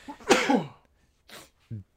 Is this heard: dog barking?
no